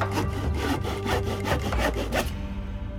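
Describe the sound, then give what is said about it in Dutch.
A hand saw cuts through wood in steady back-and-forth strokes, about nine rasping pulls in quick rhythm, loud and scratchy, then stopping abruptly. No one speaks. “Hé, hey, stop nou eens met zagen!”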